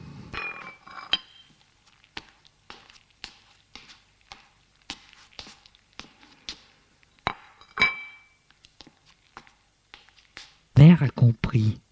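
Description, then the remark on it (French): During a meal, a plate is set down near a tree trunk in a corner of a kitchen, amid a long series of sharp, ringing clinks of dishes and cutlery, fairly crisp, with a louder burst of noise near the end. “Judual prend l'assiette et va la poser”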